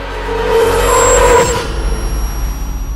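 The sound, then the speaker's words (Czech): A bus on a bend swerves aside and collides with a car, roaring with a screech of brakes, its loud engine surging for about a second before dropping away to a low, uneven rumble. No one speaks. “V zatáčce mě bude chtít předet a nevšimne si autobusu, který jede naproti. Jeho řidič to strne na stranu a tam se srazí se mnou.”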